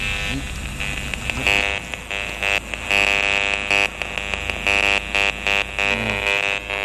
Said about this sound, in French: Ah bah, en fait il y, a plusieurs pollutions mélangées là. T'entends à la fois le DECT, la Wi-Fi, et il y a un petit peu de 3G parce qu'il y a une antenne qui est juste derrière les bâtiments qui sont là-bas.